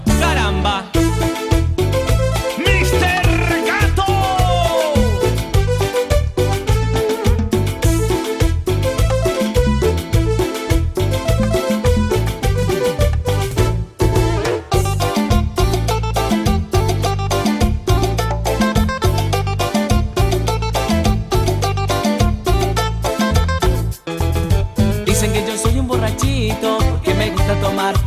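A recorded song plays loudly and steadily throughout, with a punchy, driving beat, strong bass, bright melodic lines and dense full-band instrumentation, no talk over it.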